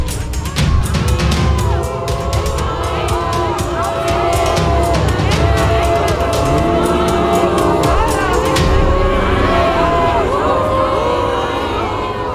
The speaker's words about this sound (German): Es geht völlig in Gebrüll unter, was auch immer ihr da jetzt versucht.